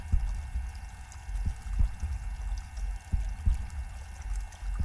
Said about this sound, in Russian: Сердечный пульс. С какой частотой сокращается сердце? это также важно.